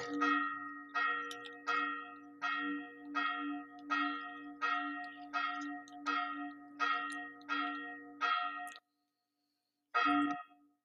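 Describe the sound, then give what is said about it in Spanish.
A church bell rings loud and resonant before mass in a steady, rapid series of about a dozen strokes with a lingering hum, then pauses briefly before one more stroke sounds. “Perdón si se escucha las campanadas, ya casi viene la misa, entonces hay una disculpa, ¿verdad?”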